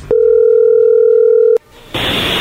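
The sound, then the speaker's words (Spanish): A steady, loud telephone dial tone while placing a phone call hums at a single pitch for about a second and a half, cuts off abruptly, then a brief lull gives way to a hissing line noise. “A ver, vamos a llamarle a ver qué sucede”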